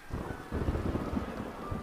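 Low thunder rumbles beneath a steady wash of rain, the noise dense and continuous with rolling bursts of deeper energy throughout.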